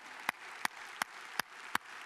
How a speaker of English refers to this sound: And if you are a vet and you've served this country, I want you to know we are with you. And if you could stand, we want to give you a round of applause, okay? So go ahead and stand up. Look at them. Look at these men and women.